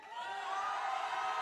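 A crowd, asked to all shout at the end of the show, shouts and cheers together in a sustained, dense roar of many voices, steady and loud throughout with bright, overlapping high-pitched yells.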